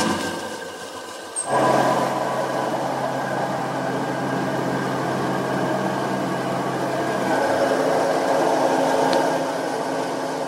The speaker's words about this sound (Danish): Jamen, nu står vi øh, ved min øh, malkværn, som, øh, som bruges til at, at knuse malten.